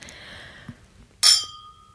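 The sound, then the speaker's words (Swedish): Crystal glasses clink together once in a bright, ringing toast, the high tone shimmering and fading over a second, preceded by a faint lingering ring from an earlier touch. “Det var kristallglas.”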